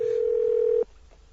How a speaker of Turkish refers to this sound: Serap Aksu'nun telefonu çalıyor işte.